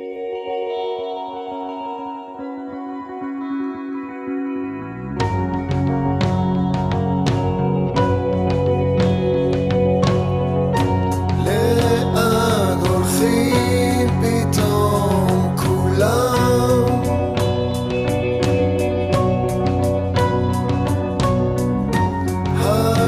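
The theme song of the television series Stissel plays on its own, opening with a soft sustained intro for about five seconds before a full band enters with steady percussion hits and layered melodic instruments.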